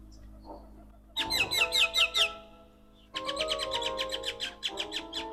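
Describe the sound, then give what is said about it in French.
Birds in Martinique sing in two bursts of rapid, repeated chirping phrases, bright, with a short quieter pause between them and a faint low hum underneath. “Alors je voulais commencer mon album avec le chant des oiseaux.”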